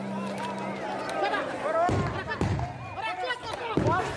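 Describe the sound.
Several sharp gunshots crack out at irregular moments amid a crowd of agitated, shouting voices at Kabul airport, Afghanistan, as people flee in a tense commotion, scrambling and calling out around them.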